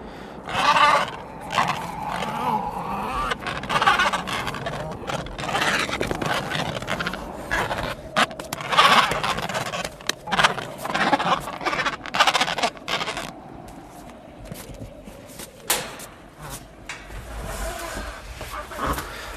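An Adélie penguin in the breeding season is caught by hand: scuffling and scraping noises mix with the bird's harsh, bleating squawks, repeated in bursts over about twenty seconds, with faint voices in the background.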